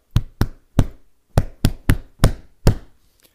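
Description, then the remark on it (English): Eight loud slaps land in quick succession with an uneven rhythm, each a sharp, dull thump: men slapping each other's backs while hugging, on thick winter coats, with no voices. “Like when they hug, they do that big slap that big slap. And it's the winter time, so coats are thicker, so you just hear these like loud slaps, right?”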